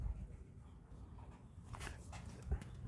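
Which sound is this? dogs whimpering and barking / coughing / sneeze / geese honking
dogs whimpering and barking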